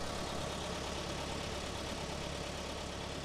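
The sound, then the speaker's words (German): A delivery truck engine idles steadily, a continuous low rumble with a rough, slightly knocking texture that holds constant throughout, with no voices. “Frische Zutaten, die mit einer ganzen Flotte von Lastwagen direkt an die Top-Restaurants in der Stadt angeliefert werden.”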